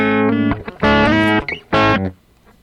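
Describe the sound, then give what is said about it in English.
A distorted electric guitar played through a delay pedal plays a short phrase, then a loud chord-like burst comes back almost a second later as a long delayed repeat before fading out. No one speaks. “Did you hear how, how long that delay is?”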